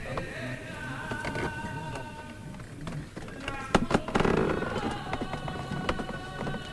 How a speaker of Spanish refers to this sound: Y de nuevo cruje la madera.